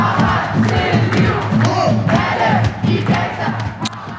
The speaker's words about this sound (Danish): det sidste stykke hen til den egyptiske ambassade, hvor aftenens demonstration sluttede, som den startede, med slagsangen.